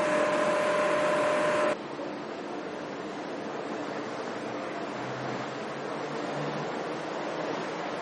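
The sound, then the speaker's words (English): A monorail on the resort loop pulls away, a brief tonal whine over loud mechanical noise giving way to a steady, broad rushing roar that carries off into the distance without voices. “And as we hear the monorail roar off into the distance, that'll do it for this podcast.”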